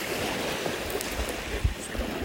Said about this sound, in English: And I'm taking this opportunity to walk the beach. You can probably hear the little shh, shh of the waves as I'm walking.